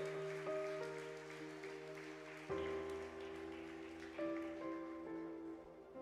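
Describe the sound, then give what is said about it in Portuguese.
A crowd claps in praise to God in a dense, crackling patter beneath sustained keyboard or organ chords that shift every couple of seconds; no one speaks. “Aplauda ele, aleluia, glória a Deus.”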